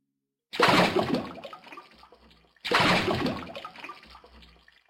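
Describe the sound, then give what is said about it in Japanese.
Two identical heavy splashes of a large sea turtle plunging into sea water, each a loud rushing surge that fades into bubbling churn over about two seconds, with no voices. “海は最初生暖かくて気持ち悪かったけれど慣れない体をぐっと潜らせたらひんやりした潮に包まれて、途端に気持ちよくなった。”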